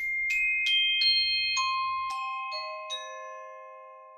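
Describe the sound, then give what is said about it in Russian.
A glockenspiel struck with a hard mallet plays a short run of about seven bright, ringing notes, each with a crisp attack and a long shimmering decay that overlaps the next, heard alone; the instrument transposes two octaves up. “Это мы про колокольчики сейчас.”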